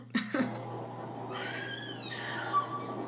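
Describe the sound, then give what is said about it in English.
After a brief sharp burst of noise, a woman in a film scene lets out a shrill, wavering scream that trails downward, heard faintly over a steady low electrical hum; the character Karen screams while attacking her mother. “I was just too busy laughing at her screaming.”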